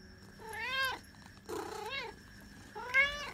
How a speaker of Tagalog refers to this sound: Kaninong pusa yan?